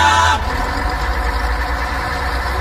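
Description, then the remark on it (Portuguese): A bus engine idles with a steady low rumble and constant hum, moderately loud, continuing without a break after a brief brighter burst at the very start. “Ônibus com ar-condicionado é uma maravilha.”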